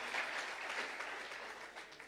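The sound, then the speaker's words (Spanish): Steady applause from a church audience for the King of Kings, a dense crackle of many hands clapping at once, holding an even level for about two seconds with no voices on top. “Que alguien aplaude al Rey de Reyes.”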